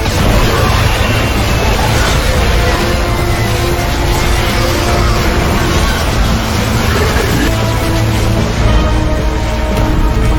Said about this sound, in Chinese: 在用尽全力的旋转中，龟壳四周展开的能量逐渐汇聚成了一颗圆球，毁天灭地的爆炸输出结结实实的砸到了怪物身上。